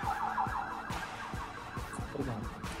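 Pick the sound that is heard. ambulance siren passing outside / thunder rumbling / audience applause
ambulance siren passing outside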